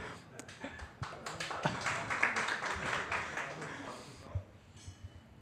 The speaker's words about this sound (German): okay, kann man klatschen, ja.